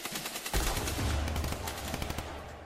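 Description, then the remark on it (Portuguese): Rapid, continuous bursts of gunfire crackle for a couple of seconds, dense overlapping shots like automatic weapons firing, with a rumbling low end and no voices. “Ainda meio adormecido, Geraldino nem imagina que aqueles barulhos possam ser tiros.”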